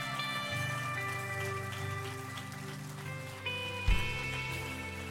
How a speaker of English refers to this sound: Are you with me today? Give my a hand clap if you believe it.